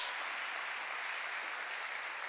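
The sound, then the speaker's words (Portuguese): An audience applauds the Lord Jesus during a Portuguese-language sermon: a dense, steady wash of many hands clapping at even loudness for a couple of seconds, with no voices coming through. “Aplauda o Senhor Jesus.”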